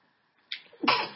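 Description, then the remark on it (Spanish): A single forceful sneeze: a short sharp intake followed by a loud explosive burst that trails off quickly, heard alone without any talking. “perdón, con el estornudo.”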